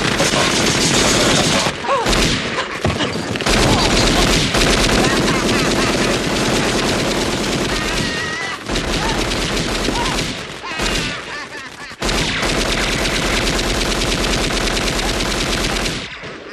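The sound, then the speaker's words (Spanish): Loud, relentless machine gun fire from a gangster movie, rattling in long dense bursts for about sixteen seconds, broken only by a few short pauses before the shooting resumes. “Cómo espantar a dos ladrones eh, poniendo con una peli de gángster, ¿no?”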